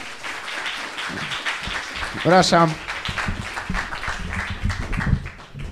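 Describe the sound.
A crowd at a live show in Wrocław applauds steadily as the second host is welcomed onto the stage, a dense wash of clapping that fills the whole stretch, while a man briefly speaks over it partway through.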